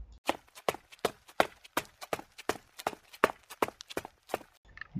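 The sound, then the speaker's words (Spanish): Quick, crunching footsteps climbing a stone-covered slope at night under a full moon, about a dozen steady steps in a brisk rhythm, fairly loud with gritty scraping between them and no voices. “Una noche de luna llena, comenzó a subir la ladera cubierta de piedras.”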